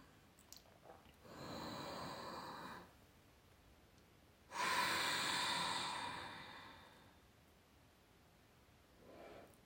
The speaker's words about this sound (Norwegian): Ja, om du ønsker, så kan du sette litt lyd på pusten.